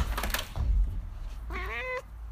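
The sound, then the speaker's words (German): A cat standing at the door meows as she comes in, a single drawn-out, fairly clear meow rising then falling, preceded by a soft thump and rustling, with a low steady hum underneath. “Äh, sie, will, sie steht gerade an der Tür und jetzt kommt sie rein, hört Sie mault.”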